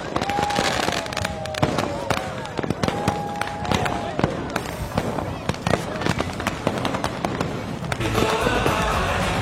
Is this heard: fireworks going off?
yes